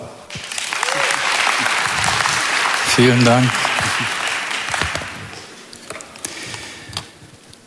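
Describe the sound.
Steady audience applause at a church gathering for a man about to read a Bible passage, a dense crackle of many hands clapping that swells and then tapers off, with a brief spoken thank-you heard over it partway through.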